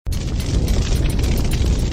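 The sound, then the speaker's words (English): A massive explosion boom from an impact bursts in abruptly, then rolls on as a loud, deep, continuous roar with crackling surges throughout, overwhelming, with no voices. “The waves raised by the explosion cover large cities, and earthquakes are so strong that giant skyscrapers fall like a house of cards.”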